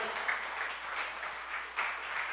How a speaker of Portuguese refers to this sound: Vamos aplaudir o Senhor.